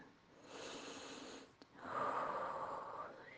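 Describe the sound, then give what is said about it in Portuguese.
A long, deep breath drawn in, then a brief pause before an even fuller, airy exhale, with no talking. “Inspira aquela respiração bem profunda, solta o teu pensamento agora.”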